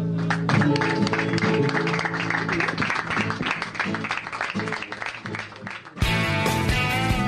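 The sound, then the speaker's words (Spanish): Steady audience applause at an archived rock performance recording from rock.com.ar, mixed with music and sustained tones, loud and continuous throughout, with a sudden brighter burst of crowd noise near the end. “¡Aplausos!”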